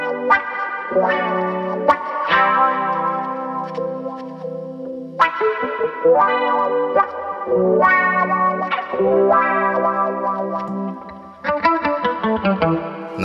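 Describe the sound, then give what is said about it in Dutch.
Electric guitar played through a chorus effect pedal, strummed chords and riffs with a lush, shimmering, wavering, slightly distorted tone, steady and fairly loud with no voices. “Het chorus op mijn wa trouwens ook heel gaaf.”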